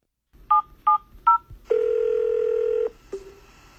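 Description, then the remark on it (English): Three quick electronic keypad beeps from a telephone being dialed, followed by a loud, steady dial tone that holds for about a second before cutting off, then one brief final tone. “Literally me and you talking on the phone.”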